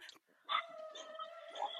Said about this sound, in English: Oh. It's okay. We have dogs bark. It's okay.